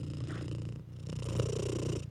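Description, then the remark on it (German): A cat purrs close to the microphone, a steady low rumble with rhythmic breathing pulses, briefly pausing before continuing; no one speaks. “Lass die Katze? gerade ins Mikrofon puren.”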